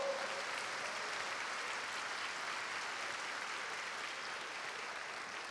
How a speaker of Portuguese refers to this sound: Vamos aplaudir ao Senhor.